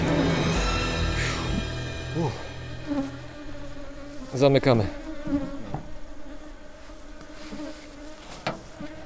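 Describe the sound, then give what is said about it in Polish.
Honeybees buzz around an opened hive as men close it, in a steady, dense drone of overlapping wingbeats that swells and dips slightly, with a single short word spoken partway through. “Panowie proponują, że tworzą jeszcze jedną kolonię, jeszcze jeden ul, ale podziękowałem uprzejmie.”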